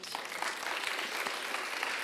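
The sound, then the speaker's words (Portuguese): Steady audience applause, a dense crackle of many hands clapping at an even level throughout, with no voices standing out. “Vou aplaudir a vida dela, gente.”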